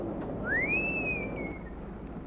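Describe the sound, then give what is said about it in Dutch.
A child, playing a game, whistles in imitation of a falling bomb: one clear, high tone that swoops up and then slowly sinks in pitch for about a second, over a steady background hiss. “Ik weet hoe je bommen kan laten. Ja. Ik ook het geluid ervan.”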